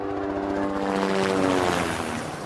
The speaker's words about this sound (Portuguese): E o governo federal bota helicópteros do exército para sobrevoar a reunião dos sindicalistas.